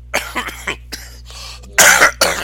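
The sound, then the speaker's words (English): A series of harsh coughs and throat-clearing bursts, several short hacks followed by two louder, raspy coughs near the end, with no talking. “I will with a cough.”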